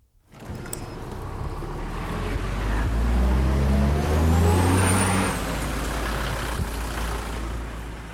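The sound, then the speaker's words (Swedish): A large diesel bus drives along, bound for the closed city of Sarov, formerly Arzamas 16, with a deep, steady engine rumble that swells gradually and holds, alongside road noise and a faint high whine. No one speaks. “Så den här äh, busschauffören smälte och ringde till sist för mig och sen så fick jag ta plats och åka med.”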